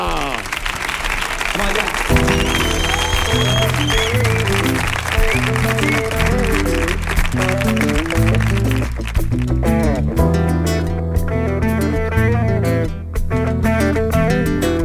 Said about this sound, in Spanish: Así que señoras, señores, Rebelión en la granja, la tropa del capitán Pollero, vamos a disfrutar de Tiambe en el show del comandante Lara. Fuerte el aplauso.